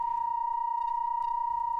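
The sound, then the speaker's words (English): A steady, unchanging drone of 32 sine waves tuned to different frequencies in just intonation, from a sound and light installation at 275 Church Street in New York. One bright tone dominates, with fainter higher pitches above, sustained evenly throughout with no speech. “The sound consists of 32 sine waves, tuned to different frequencies according to just intonation.”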